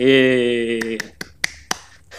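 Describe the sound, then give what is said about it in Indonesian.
Five sharp, crisp hand claps in a loose, unhurried rhythm, following a sustained vocal tone that fades just as the clapping begins. “Oh, tepuk tangan.”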